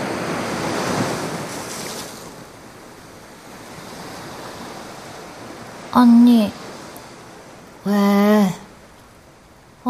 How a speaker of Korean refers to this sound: 그냥 파도 소리인데 하와이야, 하와이. 하와이 파도 소리. 이건 그냥 영화에서 나온 소리. 라디오에 녹음한 거잖아. 그래도 하와이야.